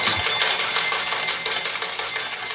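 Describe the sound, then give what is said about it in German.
A steady, bright metallic jingle of coins pouring out of a slot machine, a dense clatter of many small clinks running continuously without pause, fairly loud and with no voices over it. “Wenn du die ganze Zeit so die, die Münzen rausgehst aus dem Automat.”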